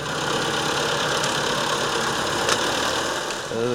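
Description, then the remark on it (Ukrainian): A heavy diesel engine, a tractor or road grader, rumbles loudly and steadily as it drives past, overtaking burned-out Russian heavy military vehicles in Ukraine, before a voice begins at the very end. “Повз їде чи то трактор, чи то грейдер, обганяє якусь згорілу російську важку техніку.”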